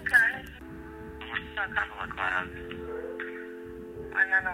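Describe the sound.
A slow, melancholy rap track plays through a small phone speaker, with a rapped vocal over sustained low synth chords. It sounds thin and tinny.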